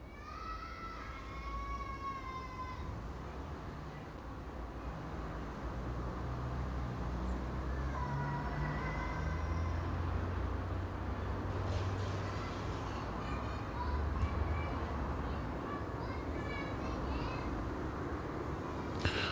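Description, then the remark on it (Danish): Steady street ambience with low traffic rumble, broken by a playing child's high, happy, excited scream or squeal, heard once early on and again briefly a few seconds later, echoing between the houses on the street next door. “så var der sådan en skrig af sådan et barn, som legede. Det er meget sådan glad skrig, begejstret skrig på gaden ved siden af.”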